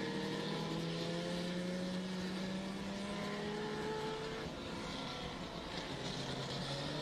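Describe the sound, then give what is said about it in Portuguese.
The engine of Kleber Silva's Caravan stock car, leader of the Street category, roars continuously, its pitch climbing steadily as it accelerates along the track, loud, with a broad background rumble and no voices. “E aí ele vai seguindo na pista, vai acelerando.”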